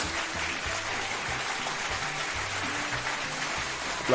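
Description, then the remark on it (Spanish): Steady, dense applause that sounds much like rain pattering, a continuous wash of many hands clapping at an even level with no voices over it. “Parece que está lloviendo, pero son aplausos.”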